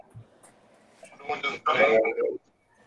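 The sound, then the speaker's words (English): Thin, phone-quality voices overlap with a smeared, echoing repeat, and a faint ringing feedback tone hangs over them for about a second before cutting off abruptly. “Somebody has echo, turn your volume down.”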